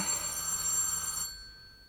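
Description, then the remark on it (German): An old-fashioned telephone bell rings in one bright, rattling burst for about a second, then cuts off into silence. No one speaks. “Ausgerechnet heute klingelte alle Augenblicke das Telefon, Nebensächlichkeiten, falsche Verbindungen.”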